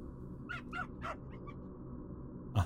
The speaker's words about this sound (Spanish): Me interesa ver, ¿qué le respondió el perro? Dime. el perro le contestó.